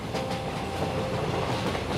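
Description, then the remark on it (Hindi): A fast train rumbles steadily along the rails past long, dense forest, a continuous, fairly loud clatter of wheels and carriage noise with a faint tonal hum running through it, no voices. “तेज दौड़ती रेलगाड़ी के बाहर का नज़ारा बहुत खूबसूरत था लंबे घने जंगल और चेहरे से टकराती ठंडी ठंडी हवा”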